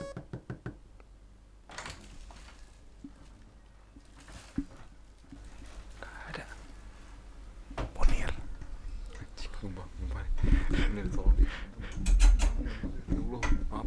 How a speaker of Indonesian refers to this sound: Nah, jadi buat teman-teman tahu barusan ada yang ngetok suara pintu tapi nggak ada orang.